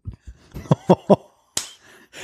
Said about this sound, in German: Was passiert, wenn du einmal klatscht oder dreimal? Nee, es geht nur zweimal. Und dann? Also es muss zweimal klatschen für an und zweimal klatschen für aus. Immer zweimal klatschen.